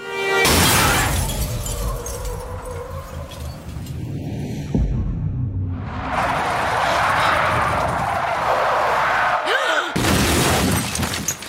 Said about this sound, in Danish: Men før hun overhovedet når at foretage sig noget, så hamrer en bil ind i siden på hendes.